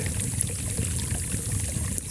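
nature, small brook trickling

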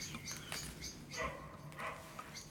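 bird, birds chirping outside

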